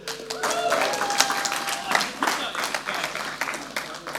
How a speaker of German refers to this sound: Ich kann nichts machen, wenn ich keine Pizza habe. Da kommt meine wunderschöne Frau. Ein Applaus bitte.